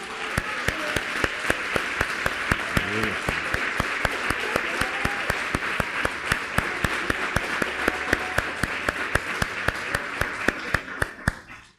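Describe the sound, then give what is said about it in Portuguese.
A large audience applauds the Lord for about twelve seconds, a dense wash of clapping with a steady rhythmic beat running through it, holding strong before tapering off at the end. “Vamos aplaudir o Senhor por isso?”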